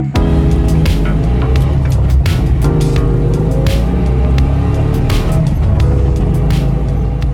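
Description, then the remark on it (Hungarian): A Trabant car's engine drones steadily and loudly, a continuous low rumble with rattling and occasional sharper clicks as it drives along snowy white winter roads near the Slovak-Hungarian border. “Egy trabant szeli a fehér téli utakat a szlovák-magyar határ közelében.”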